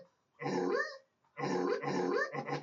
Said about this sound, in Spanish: El mejor sonido del perro.